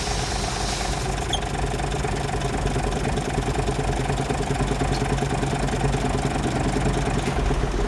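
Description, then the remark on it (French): A large diesel bus engine idles steadily at a motorway rest area where the buses stop for 20 minutes, with a deep, rumbling drone and a faint rhythmic knock, holding an even loudness throughout with no voices. “Alors les bus vont s'arrêter 20 minutes sur l'aire d'autoroute.”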